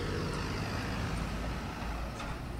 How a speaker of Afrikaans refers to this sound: Nou wil ek sien hoe ry die karre oor hierdie gat vol teer wat so genoem word omdat dit dit slaggate vol maak.